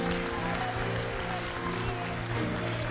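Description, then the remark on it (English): A crowd claps steadily in sustained, dense applause as a hand clap of praise for Jesus Christ in the evening, with a low musical drone or organ tones sounding beneath the clapping throughout. “for Jesus Christ a hand clap of praise this evening.”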